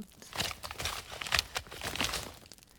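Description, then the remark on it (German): Dried hide in a sack creaks and crinkles loudly as someone steps on the sack, a series of dry, crackling rustles in quick uneven bursts with no voices. “Da trat der kleine Klaus wiederum auf den Sack und die Haut knarrte laut.”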